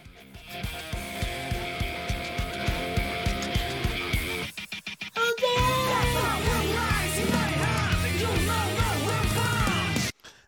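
A loud rock song, the opening theme of the anime One Punch Man, plays: a steady pounding drum intro with sustained guitar tones, a brief stuttering break, then a dense full-band section with soaring vocal-like melodic lines, ending abruptly.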